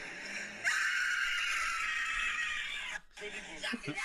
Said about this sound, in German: er rutscht aus und rutscht dann zu und die erschreckt sich halt übelst und schreit dann wie Sau.